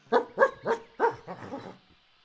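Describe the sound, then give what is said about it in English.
The hunting dog of the god Ameta barks four times in quick, evenly spaced succession, fairly loud, then trails off into a softer, rougher whine. No one speaks. “In the beginning, the god Ameta decided to go hunting one day with his dog.”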